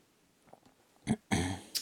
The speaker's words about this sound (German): Ich hab äh, mich geräuspert.